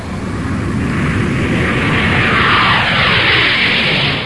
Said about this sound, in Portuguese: Parece que vai decolar um avião.